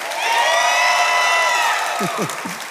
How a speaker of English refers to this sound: Come on, give Jesus a better hand clap, everybody on, if you really love him, give him your best.